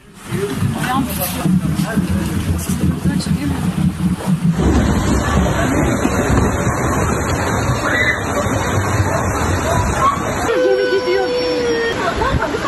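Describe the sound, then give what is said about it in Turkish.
After an earthquake, rising seawater sloshes and surges over the harbor at Sığacık, Seferihisar, as boats knock together and drift. A loud, steady rushing wash continues throughout, with a crowd of people talking and exclaiming over it. “Oo suya bak nasıl yükseliyor. Böyle bir şey olamaz gidiyor tekneler.”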